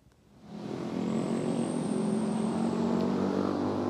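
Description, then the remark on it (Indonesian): Steady roar of city road traffic in Semarang, Central Java, mostly private cars and two-wheelers, swells in after a moment and holds, engines droning and humming continuously as vehicles move past, with no voices. “Dari pantauan kami di Kota Semarang ini memang untuk arus kendaraan di dalam kota terpantau ramai lancar di mana masih banyak kendaraan dengan jenis pribadi seperti kendaraan roda 4 dan juga roda 2”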